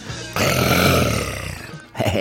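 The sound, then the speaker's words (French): A voice imitates a roar, a loud guttural growl with a rattling, purr-like pulse that swells, holds for over a second and fades, then a short second growl bursts out. “Le rugissement jaillit d'un ronronnement, comme un vieux moteur de Harley Davidson, quoi.”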